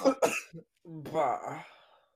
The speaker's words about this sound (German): Was, was und ich habe nur gehustet.